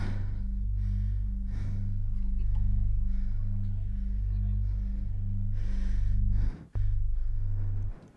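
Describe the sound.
A voice makes a low, rumbling drone that imitates a truck engine, held steadily for several seconds with a slight pulsing rhythm, a brief break near the end, then resuming.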